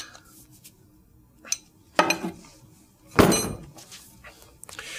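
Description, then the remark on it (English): A plug being screwed tightly into a strong, thick cast-iron bottle filled with water, its walls about a third of an inch thick: a few sharp metallic clinks and grinding scrapes, the loudest a longer rasping burst partway through, with quiet pauses between and no talking. “And I'll screw the plug in tightly.”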